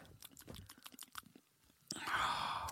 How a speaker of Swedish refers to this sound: Eh, tillåt mig att ta en klunk av det här jävla bubblet först.